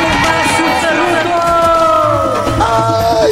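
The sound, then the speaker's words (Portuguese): A short, loud segment jingle plays for a few seconds: sustained, sliding tones layered over a busy, crowd-like wash of voices and noise. “solta a vinheta aí, Silão! Faz barulho aí!”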